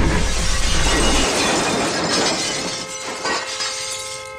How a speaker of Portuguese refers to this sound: O cara da moto bateu num carro ali, cara. Que isso? Nossa.